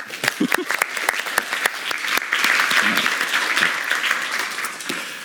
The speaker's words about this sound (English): Uh, a warm round of applause